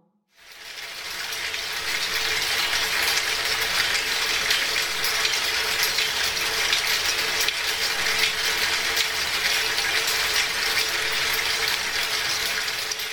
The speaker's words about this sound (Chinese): 作品三百六十一个直流电马达，一毫米金属线，毫无悬念，它就是使用了三百六十一个马达。整齐地排列在一张白色的桌面上，每一根马达上面固定着直径一毫米的细金属条。